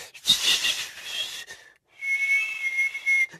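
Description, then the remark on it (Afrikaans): Two breathy blows of air through pursed lips by someone learning to whistle, an airy hiss carrying only a faint, wavering hint of a whistle tone, like a failed attempt at whistling. No talking. “Uh maar maar dis nog nie regtig fluit nie. Maar maar daar was klank.”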